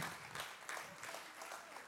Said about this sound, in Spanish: Yo no sé tú, pero yo lo quisiera dar un aplauso al Señor. Aleluya.